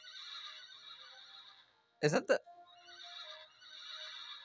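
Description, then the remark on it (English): A horse in a Western-themed video game neighs once, loud, in a brief two-part whinny when clicked on, cutting through a steady background of music. A voice speaks briefly before the neigh. “Click on the horse and they neigh.”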